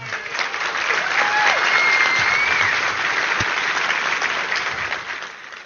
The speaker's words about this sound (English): Uh, so, big round of applause for everybody I work with.